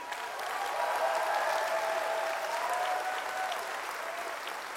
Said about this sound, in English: This is a church that clapped for us as loud as they could and really, really encouraged us. Can we do that today?